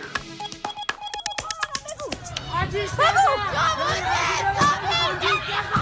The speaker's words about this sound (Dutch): Wat je hoort is protest in Iran na de dood van een jonge vrouw die opgepakt was door de zedenpolitie, omdat ze haar hoofddoek niet op de juiste manier gedragen zou hebben.